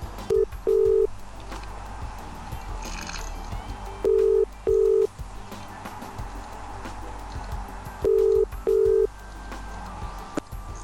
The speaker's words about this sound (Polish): Nawet uroczyście tak. dźwięk łączenia poszedł na antenę.